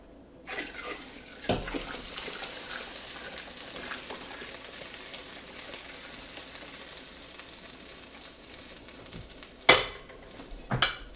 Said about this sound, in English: Next thing is to get it to boil. So I'm going to add another gallon of water.